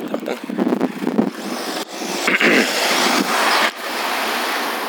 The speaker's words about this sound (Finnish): Pitää arvioida paljon, pitää leikata niitä tuulia, tuulia tuossa sun nauhoituksesta, että paljon puuttuu siitä sun tunnista.